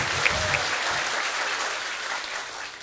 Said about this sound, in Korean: 아, 네. 박수 쳐주십시오.